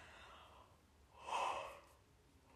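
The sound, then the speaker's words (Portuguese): A single soft yawn: a breathy intake swells to a drawn-out, airy peak and then trails off, quiet, with no talking. “Pai, eu não sei o que é que se passa comigo hoje, mas eu estou sempre a bocejar.”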